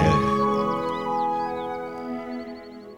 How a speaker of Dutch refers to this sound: Dus ik zou zeggen, knal die jingle er maar meteen in